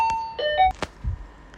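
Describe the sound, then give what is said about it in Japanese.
An electronic doorbell chime rings with a short run of clear, steady tones stepping in pitch as a Yamato courier arrives to deliver a parcel, followed by a couple of dull knocks and thumps, with no one speaking. “すごい聞こえたなんか今ちょっとヤマトが来たんだけどすごいオンタイムであの荷物が届いてしまったんですが”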